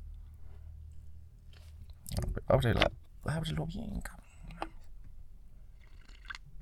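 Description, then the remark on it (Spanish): A quick sip of coffee: a couple of short wet slurping and swallowing sounds, with a man muttering briefly before and after. “Pausa para trago de café y empezamos”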